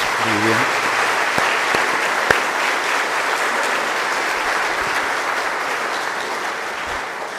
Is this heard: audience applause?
yes